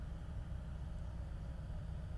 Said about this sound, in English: The old man walked out the door, climbed in his car, and sped off, leaving me and my co-worker speechless.